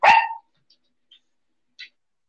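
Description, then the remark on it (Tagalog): A single sharp bark from the speaker's dog Kali, who is angry, loud and abrupt, followed by a couple of faint, brief yips or squeaks in otherwise quiet surroundings. “Wait, wait, wait, aso.”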